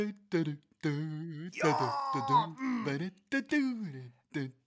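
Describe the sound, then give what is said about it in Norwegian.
A voice imitates a buzzing bumblebee with a series of droning, groan-like hums in short bursts, separated by brief pauses and rising and falling in pitch. “Det er en god humlelyd.”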